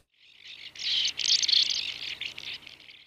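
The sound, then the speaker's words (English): Ancient murrelet calls on the west coast of Canada: a dense, continuous chatter of high, buzzy chirps that builds quickly and stays loud for about three seconds, with no voices present. “The ancient murrelet is still very common here on the west coast of Canada, but they are not immune to the effects of human activity.”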